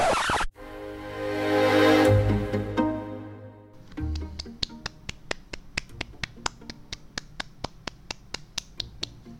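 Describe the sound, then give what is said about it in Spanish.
In a song, a sustained droning tone opens, then a steady, evenly spaced run of about twenty sharp hand claps begins, crisp, over a low musical bed. “son aplausos por este acaso.”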